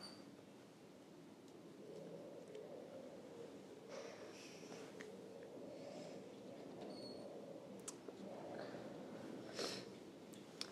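Intermittent high, thin squeaking creaks come and go over a steady low rumbling background, some sharp and brief, others drawn out, fairly quiet throughout with no one talking.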